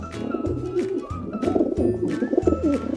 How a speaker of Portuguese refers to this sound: pomba que grãos debulha, como faz batendo as asas sobre o telhado das casas? Arrulha.